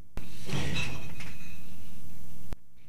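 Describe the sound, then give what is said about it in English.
Glass mason jars clatter and clink together inside a box as a cat nearly knocks it onto a workshop floor, a loud rattle lasting about a second before faint ringing tones fade out. No one speaks. “Almost knocked an entire box of mason jars onto the floor in my workshop.”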